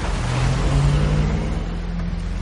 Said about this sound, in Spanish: Los todoterrenos se van.